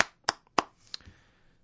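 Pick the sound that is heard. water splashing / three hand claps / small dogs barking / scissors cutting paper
three hand claps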